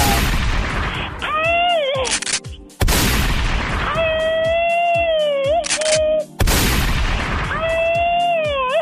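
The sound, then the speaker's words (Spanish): A machine-gun sound effect: three loud bursts of rapid fire, each followed by a long, shrill, wavering scream that holds a high pitch before the next volley cuts in. “Y que la chica sexy, aparte de darle unos plomazos, se eche un grito ametralladora.”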